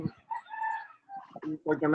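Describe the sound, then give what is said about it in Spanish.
A chicken calls out in a drawn-out, fairly loud squawk lasting under a second, then a person starts talking right after it. “¡Mira la gallina!”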